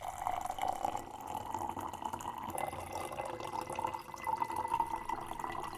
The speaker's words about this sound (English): You can even hear the difference between hot and cold water pouring into the same glass.